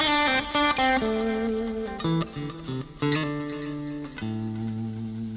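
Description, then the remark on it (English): An electric guitar with a slightly driven, effected tone plays a descending blues line alone: a string of ringing notes stepping lower, with a subtle slide gliding between a couple of them. “Now, if I put that in uh, context, if I'm, let's say I'm descending my line here. See how it adds that blues element? Just a nice subtle little element of doing that little slide.”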